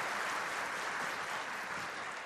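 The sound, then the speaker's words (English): An audience breaks into steady, sustained applause for female performers, a dense wash of many hands clapping at once without letup, fairly loud throughout with no voices rising above it. “Give them another round of applause.”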